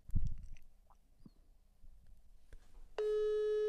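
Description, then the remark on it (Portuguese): A steady electronic phone tone, heard while dialing a call, starts abruptly near the end and holds continuously and loud, after a few faint clicks and rustles in near silence. “Estamos chamando o, o oposto.”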